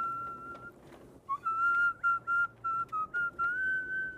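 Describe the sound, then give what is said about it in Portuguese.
Someone in a taxi in Niterói whistles the cello part of a concerto, a slow classical melody of sustained, gently sliding notes separated by brief pauses, clear over a faint low background hum. No one speaks. “Jacó estava assoviando o trecho do concerto que lera há pouco”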